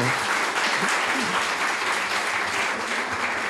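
Sustained applause from a crowd, a dense, steady wash of clapping that holds at an even, fairly loud level for the whole stretch, with faint voices mixed underneath.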